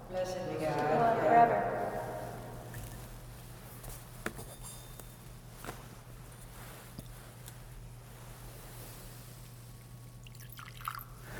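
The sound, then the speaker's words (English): A short, soft splash of water poured into a chalice of wine during church prayers near the start, then quiet with a steady low hum and a few faint drips and clicks. “By the mingling of this water and wine, become partakers of his divinity, who became partaker of our humanity.”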